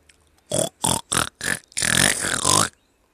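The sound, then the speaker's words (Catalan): A voice imitates a pig: four short, loud grunting snorts in quick succession, then a longer drawn-out grunt, with nothing else in the background. “Va fer el porc. Oh, però quin fàstic, aquests roncs!”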